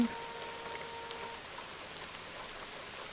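Raindrops patter steadily against a prison cell window with thick iron bars, a soft continuous hiss of rain with occasional sharper drops standing out. Quiet and even throughout, with no voices.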